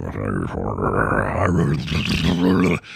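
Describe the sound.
A voice growls out a low, drawn-out rumble for about three seconds, imitating rolling thunder, loud with a rough, roaring texture before cutting off abruptly.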